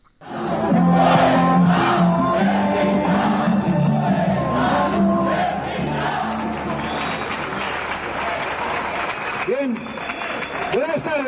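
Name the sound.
crowd shouting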